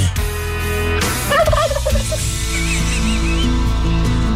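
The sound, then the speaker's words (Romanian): Loud turkey gobbling in rapid, warbling bursts, a low gobble followed by higher trilling calls, over a steady, dense background din. “Să dăm curcanii la maxim să răsune în toată țara”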